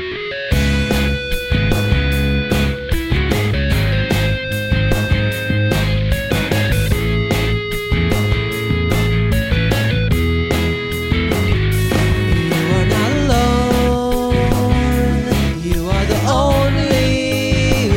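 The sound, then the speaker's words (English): A song recording that the speakers wrote together, their first musical collaboration, plays loudly and continuously, with steady rhythmic beats, sustained tonal layers and bright high accents, and no voices talking over it. “So this to, is a song we wrote together.”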